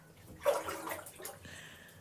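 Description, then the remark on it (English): Water splashes as a person bathes in a bath, in a short cluster of sloshing bursts that peak early and then settle into quieter lapping and trickling, with no voices. “This is and we, we if you just if you just quiet, we can just listen to him in the bath.”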